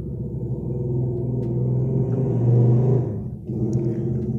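A motorcycle engine rumbles on the street right in front of a boarding house, its low drone swelling louder as it passes, dipping briefly, then continuing to growl. No one speaks.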